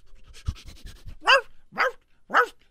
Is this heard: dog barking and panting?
yes